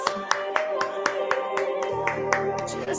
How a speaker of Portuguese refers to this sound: Com vocês, recebam com uma salva de palmas incrível, muito amor, likes, corações,